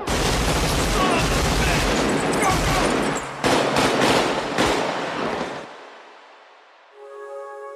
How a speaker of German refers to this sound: Und wenn nichts mehr hilft, gibt es wenigstens eine ordentliche Schießerei.